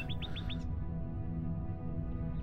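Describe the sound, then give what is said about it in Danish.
A nightingale gives four quick, bright chirps in rapid succession and then falls silent, leaving a low, steady hum that continues underneath with no one speaking. “Og hvis vidste nattergalen, hvor elendig og ked af det jeg var, jamen så vil de have opmuntret mig med deres lette nattergalesang.”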